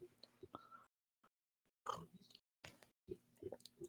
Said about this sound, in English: My apologies if you're hearing me drinking tea, but I need it right now.